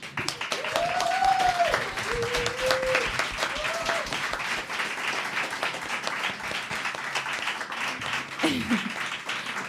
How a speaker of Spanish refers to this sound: Y nada, pues me despido un poco eh, agradecéndolle o público que estivera durante esta hora y apoyándonos. Este aplauso para vos.